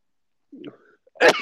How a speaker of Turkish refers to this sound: ay hapşıramadım ya.